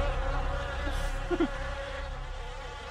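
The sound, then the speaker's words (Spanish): Flies buzz steadily, a continuous droning hum with a brief louder swoop as one passes near, with no voices present. “Solo pude verle un momento, pero el aroma y las moscas no fueron lo suficiente para distraerme de su aspecto.”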